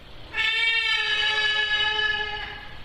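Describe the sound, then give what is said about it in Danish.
A trumpeter hornbill gives one long, loud, nasal wailing call that holds steady for a couple of seconds before fading, with no one talking. “Det er lyden af en fugl, der hedder trompeter næsehornsfuglen.”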